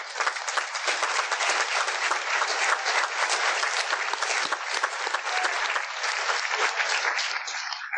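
A room full of people claps steadily, a dense, sustained wash of applause that stays loud and even for the whole stretch, with no voices standing out.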